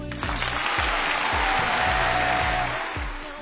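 A crowd claps steadily, a dense, even wash of applause that holds its loudness for about three seconds before starting to fade, with a faint low rhythmic thumping underneath and no talking.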